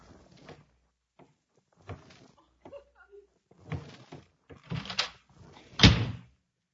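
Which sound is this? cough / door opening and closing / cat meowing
door opening and closing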